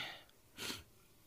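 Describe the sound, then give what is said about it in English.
A single soft, airy breath from a person practicing breathing, a short breathy rush of air lasting a moment before fading, against a quiet background with no talking. “Just just practice breathing.”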